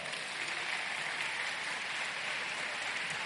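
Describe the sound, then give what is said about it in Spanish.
A crowd applauds for Inicia Radio, sent out as an evangelist: a dense, even wash of clapping hands at a constant loud level for a few seconds, with no voices standing out. “Aplauda, aplauda.”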